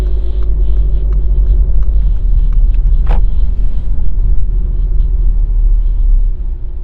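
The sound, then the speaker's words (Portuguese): Steady, loud low rumble of cars driving in and out, engines droning continuously with a brief sharp click partway through; no one speaks. “Entre e sai de carro, você tem que ficar atento, filho.”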